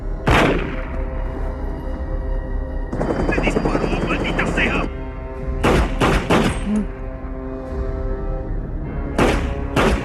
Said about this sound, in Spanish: el realizador, David Fincher elige un plano contrapicado como punto de vista del receptor de estos disparos, con lo cual el detective iracundo dispara a la cámara, es decir, a nosotros espectadores.